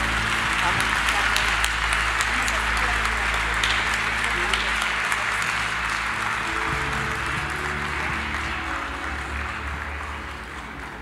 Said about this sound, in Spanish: Le puedes dar el mejor, mejor aplauso que tú tengas esta mañana al Señor.